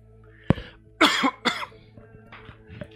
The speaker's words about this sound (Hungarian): Köhögök is.